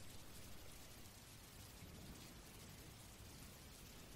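Steady rain pours down, a dense, even hiss of countless drops with a soft low rumble underneath, constant throughout with no voices.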